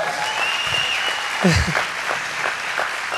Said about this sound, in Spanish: Y tenemos fiesta porque tenemos bautizos al final de esta reunión. ¿Por qué no les damos un fuerte aplauso?